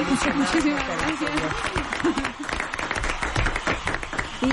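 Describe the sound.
Steady audience applause fills the whole stretch, a dense wash of clapping at even loudness, with voices calling and talking over it.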